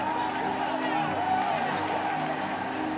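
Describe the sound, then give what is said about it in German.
Office workers clapping and cheering in an office as Bitcoin crosses the 10,000 dollar mark, a dense, steady wash of applause mixed with excited overlapping voices that holds at an even loudness throughout. “Die Mitarbeiter klatschen und feiern.”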